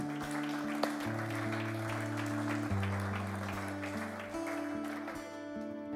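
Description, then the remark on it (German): Steady audience applause for the teams, in Segeten: a dense crackle of many hands clapping over sustained low keyboard chords that shift every second or two. Nobody speaks. “Lasst uns ihnen einen herzlichen Applaus geben.”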